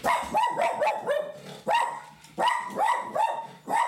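A dog barks over and over at another dog walking by the window, a loud, steady volley of sharp barks with only a brief pause in the middle before it starts up again.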